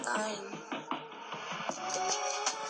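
A song plays from an Amazon Echo smart speaker through Amazon Music, a steady stretch of music with a voice over the beat, slightly thin and boxy, at a moderate volume.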